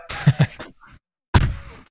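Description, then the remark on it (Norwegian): A door is slammed shut hard: a single loud, sharp bang that rings out briefly, coming after a short pause that follows a few angry grunting vocal sounds. “Altså kan, kan, jeg, slå med døra i sinne?”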